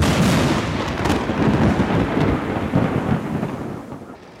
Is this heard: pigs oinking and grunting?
no